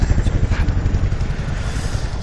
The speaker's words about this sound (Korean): 한 번 더 들려드릴게요. 헬리콥터 소리입니다. 저쪽에서 날라와서 지금 네,